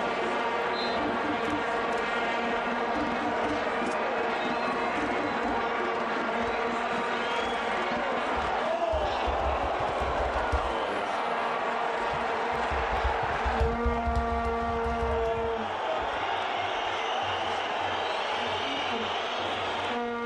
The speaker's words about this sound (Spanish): Estamos escuchando sonidos de un partido de fútbol.